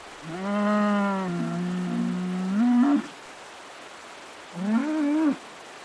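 A cow caught on the rocks of a riverbank at the end of the rainy season moos twice, a long drawn-out low call rising at the end, then a shorter second moo after a brief pause, loud with no talking.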